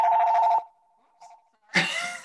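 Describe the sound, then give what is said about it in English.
A loud, buzzy electronic phone ring sounds for about half a second, trails off into a faint lingering tone, then a sudden loud burst of noise cuts in. “so now um, we're getting um, phone yeah. bo- phone bombed”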